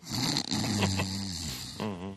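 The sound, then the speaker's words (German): A voice imitates snoring with one drawn-out, rasping, throaty snore, followed by a brief higher voiced sound at the end. It is fairly loud, with no words. “oh, im Schnarchbereich geschrieben.”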